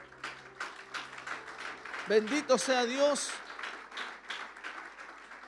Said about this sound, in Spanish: Esas palmas de alabanza al Señor.